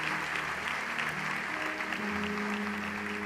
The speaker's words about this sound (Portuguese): Você pode dar um aplauso ao Senhor neste momento.